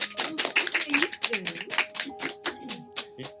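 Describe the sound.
Hands clapping at a religious assembly late at night, a steady, slightly irregular run of sharp, bright claps lasting the whole clip, with voices talking and calling out over the applause.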